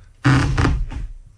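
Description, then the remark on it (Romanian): A faux-leather vinyl office chair creaks once as it shifts, a rough rubbing squeak lasting just under a second with a groaning low tone, heard on its own without any talking. “E scaunul meu scaun... care se freacă nu, mai de fă, te rog, acest sunet, pentru că trebuie să ne oprim să vorbim despre acest sunet.”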